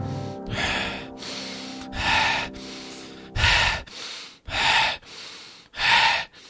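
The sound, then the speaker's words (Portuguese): A woman breathes heavily, with about six loud, rasping gasps in a steady rhythm, each roughly a second apart, over a low humming drone at the start. “A respiração da mulher preenchia o ambiente da sala.”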